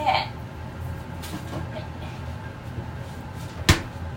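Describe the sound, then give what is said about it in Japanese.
A refrigerator door is opened with a soft clunk and then shut with a single sharp thump near the end, over a steady low background hum, as green onions left out from lunch are wrapped and put into the refrigerator. “はい、昼に使ったネギが出しっぱなしラップをして冷蔵庫に行ってらっしゃいませ”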